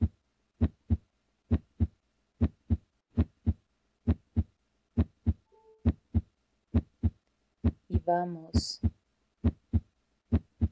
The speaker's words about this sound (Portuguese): vamos começar a ouvir o som do batimento cardíaco. como se cada batimento nos ancorasse em nós mesmos.